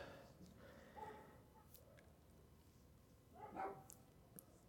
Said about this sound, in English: Fucking dogs. I'm sorry. I'm trying to to ignore them. It's just. Ah, fucking dogs.